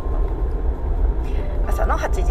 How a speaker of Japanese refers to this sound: 今からね仕事に行こうと思って、えー、車を走らせているところです前のねトラックがねちょっととろいのでね早く走ってくれって思っているところですね